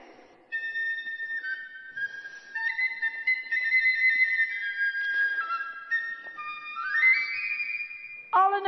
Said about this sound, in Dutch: En dan pakt hij de fluit en je hoort ineens, zelfs als hij hem niet eens vast heeft, oh, de fluit doet het weer.